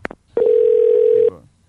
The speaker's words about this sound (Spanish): Y hay otra vaina que te voy a decir también, a mí no me está llamando maldito teléfono. Oye, esa es mi sobrina, llamando, esa es mi sobrina.